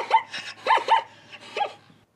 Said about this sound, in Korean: 아, 이게 얼룩말 울음소리군요. 웃음소리 같기도 하고 너무 신기하다. 얼룩말이 이렇게 우는지는 몰랐어요.